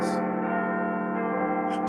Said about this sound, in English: He heard the bell begin to ring louder and louder, and slowly but surely, more and more bells joined the otherworld choir. Soon the room was flooded with sounds and loud, cacophonous bells.